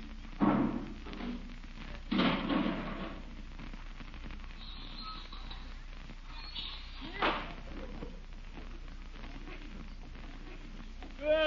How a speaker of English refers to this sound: Hey, he's coming around to the kitchen door. Bringing in the garbage can again. Oh, my gosh, I forgot to bring it in again.